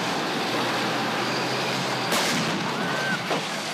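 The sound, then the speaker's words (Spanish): A heavy Russian battle tank, heard in a video, roars steadily, its loud engine and track noise filling the scene, with a sudden jolting impact about halfway through as it lands from a jump, then rumbles on. “Vamos a pasar a un video. ¿Se acuerdan del carro que salta? Bueno, vamos a ver este video. Este es un tanque de guerra ruso.”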